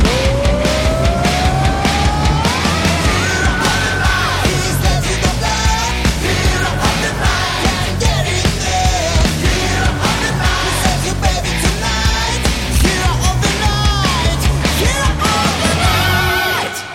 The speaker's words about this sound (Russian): Лак, гитары, ковбойские сапоги, глэм-метал, как он есть, дорогой, пошлый, провокационный, прямо из стадионных 80-х, бескомпромиссный олдскул.